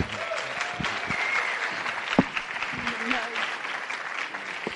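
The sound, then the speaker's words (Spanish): An audience claps for the speaker's wife as she arrives. The clapping is steady for several seconds, a dense wash of many hands at an even level, with scattered voices and a brief louder burst partway through. “Un aplauso para mi esposa, hágame el favor.”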